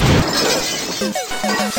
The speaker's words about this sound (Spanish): Me peleé con un mono, con un monkey, con Donkey Kong. Ese fue el día que me loqué y rompí la pantalla el televisor.